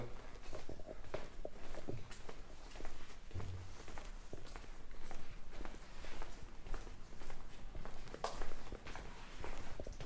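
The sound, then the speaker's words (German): Steady footsteps of someone taking a short walk outside the front door, at a relaxed pace, over a constant background hiss with scattered crunches and small clicks; no one speaks. “gehe dann kurz mal vor der Tür einmal spazieren, ja?”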